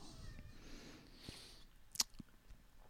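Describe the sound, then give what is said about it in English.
A house cat meows faintly while running across a couch, the quiet cries blending into soft background noise, followed by a brief sharp tap and a few small clicks, with no one talking. “did you hear max just now yeah i i heard him and i saw him run across the couch”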